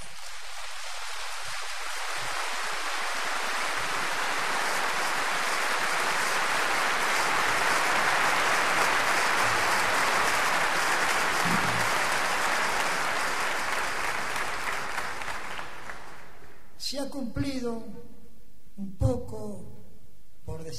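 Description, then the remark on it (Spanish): Sustained audience applause for the speaker's fellow tango workers, a dense wash of clapping that swells and holds steady for about sixteen seconds, then fades as a man begins speaking. “También, perdónenme y les pido que le den un aplauso a todos estos compañeros.”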